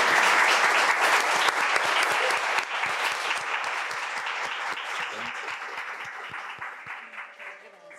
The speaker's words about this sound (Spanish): Un abrazo gigante y por favor démosle un aplauso a Andrea Olmos.